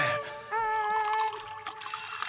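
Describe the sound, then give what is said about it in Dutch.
Jenever poured through a tea strainer into a glass, a steady trickling splash with a faint ringing tone rising as the vessel fills, lasting about two seconds with no talking. “Nou, dat moet eerst door een theezeefje, wil ik die jenever weer drinken, hoor.”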